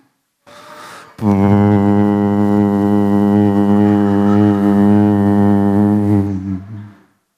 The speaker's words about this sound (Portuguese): De repente passa o transatlântico assim, e o pior, eles buzinam.